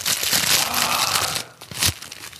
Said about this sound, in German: Er ist nicht da, aber ich kann auch jetzt meine Nase putzen.